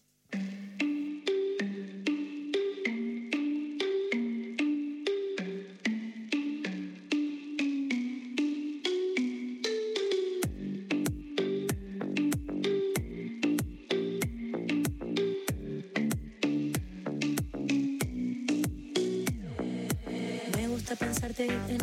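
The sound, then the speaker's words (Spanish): A song's instrumental intro plays on a radio show: a bright melodic line of evenly paced plucked notes, joined about halfway through by a punchy bass and beat that fill out the groove. No voices. “Vamos a escuchar un tema,”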